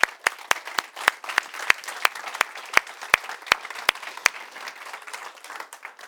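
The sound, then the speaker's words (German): An audience bursts into sustained applause, a dense wash of clapping with a few sharp, loud claps standing out in a steady beat before the sound thins and fades toward the end. “Äh, jetzt mit einem kraftvollen Applaus, bitteschön.”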